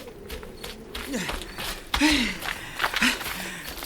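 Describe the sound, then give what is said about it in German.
Heavy panting: a series of breathy huffs and voiced gasps, roughly one every second, with faint shuffling in the background, from a man jogging toward others while dressed in an old jacket and pajama trousers. “In einer abscheulichen alten Jacke und mit einer Schlafanzughose bekleidet, kam er ihnen schnaufend entgegengejoggt.”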